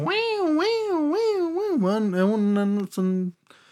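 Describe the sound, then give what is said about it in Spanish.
A voice sings a wordless imitation of a keyboard solo, sliding and bending its pitch in wavy swoops before settling into quick repeated notes, fairly loud, ending abruptly. “Tiene uno de los solos de teclado más simple y más geniales que he escuchado en mi vida.”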